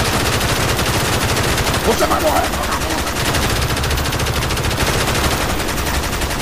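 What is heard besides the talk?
gunshots fired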